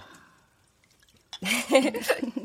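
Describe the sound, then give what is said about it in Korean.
Wine glugs into a glass, starting after a short quiet pause with a bubbly gurgle that pulses unevenly for about a second. “자, 와인 한 아, 잔. 아, 그래, 그래. 자, 형부터.”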